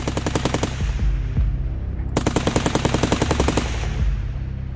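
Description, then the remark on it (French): Two long bursts of rapid submachine gun fire, a fast regular rattle of sharp cracks with a brief pause between them, loud over a low rumbling background, as a man in a car park fires a submachine gun at two police officers. “L'un des deux individus se retourne rapidement avec un pistolet mitrailleur et commence à arroser les deux policiers.”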